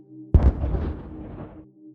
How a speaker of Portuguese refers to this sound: É uma bomba, uma granada de luz. Todos vão ficar cegos, porque eles têm cegueira à luz.